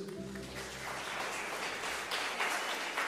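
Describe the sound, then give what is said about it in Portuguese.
A church audience breaks into sustained applause for Jesus, a dense, steady wash of many hands clapping that holds its loudness for the full few seconds, with a low tonal hum fading out at the start. “Já quero começar então pedindo uma grande salva de palmas para Jesus.”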